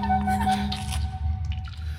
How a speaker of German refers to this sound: Was war das? Das war. Das war mein Handy. Ich habe eine Nachricht.